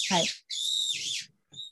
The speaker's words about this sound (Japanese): あ鳥鳥さんね聞こえる聞こえる聞こえる、うん、聞こえるはい、うん、動物の声でね最初寝れませんでした。すごいうるさいもんね、結構、ね。